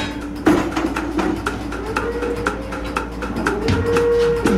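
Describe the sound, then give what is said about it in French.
Milking machine pulsators milking cows tick out a steady, rapid series of sharp clicks over a constant mechanical hum, the pulsation working membranes that massage the cows' teats, with a few brief tonal whines rising and falling in the background. “Ce qu'on entend, c'est la pulsation. C'est ce qui permet par un jeu de membrane de masser le crayon.”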